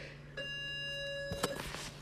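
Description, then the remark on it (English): A timer buzzer goes off with a steady, bright electronic tone that holds for about a second, then a brief thud or clatter sounds near the end. “All right, that's the buzzer.”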